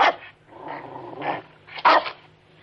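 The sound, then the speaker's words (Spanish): A small dog lets out a few sharp, high barks, with a low rumbling growl stretching between them; fairly loud and alone, with no talking. “Los niños miran alternativamente a ella y al perrito, asombrados de que se entiendan.”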